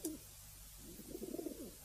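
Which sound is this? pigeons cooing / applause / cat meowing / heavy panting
pigeons cooing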